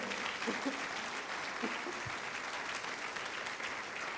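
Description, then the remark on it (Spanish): A large audience claps loudly and steadily for the Lord, dense applause lasting several seconds with a few faint voices calling out beneath it. “Alguien apláudale fuerte al Señor.”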